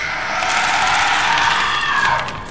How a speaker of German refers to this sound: Und die Münzen presst's nach oben.